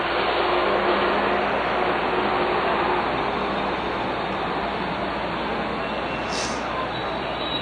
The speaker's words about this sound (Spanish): BOH055, muy bien. Ahí está el carro ruidoso.